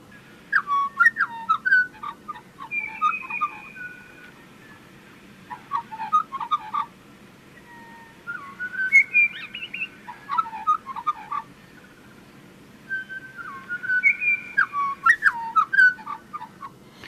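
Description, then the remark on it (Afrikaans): A pied butcherbird sings clear, fluting whistled phrases in three bursts, each repeating a similar melodic theme with slight variations, over a steady low background hum. “een van die pragtigste voorbeelde is die sogenaamde pied butcher bird van van die Midde-Ooste wat elke oggend opstaan, ek vermoed nou uit die nes uit”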